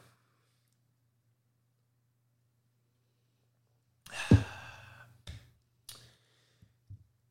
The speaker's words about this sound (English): Um, but I'll take a sip of water.